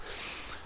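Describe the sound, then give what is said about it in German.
A single heavy, breathy exhale, fairly loud, from someone out walking and puffing hard from exertion. No one speaks. “Und du hörst es wahrscheinlich auch im Hintergrund und an meinem ja, überanstrengten Schnaufen. Ich bin mal wieder spazieren.”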